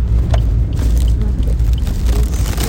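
Steady, loud low rumble of a car's interior while driving, with constant road and engine noise and faint crunchy crackles from the tires rolling over a snowy road; no one speaks.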